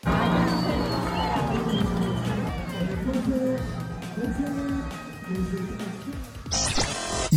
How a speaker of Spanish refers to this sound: La titular de la CONADE fue protagonista de una ceremonia protocolaria y apenas escuchó su nombre, la rechifla, los abucheos y el grito de fuera fuera se volvieron el coro de una sola voz en el lugar.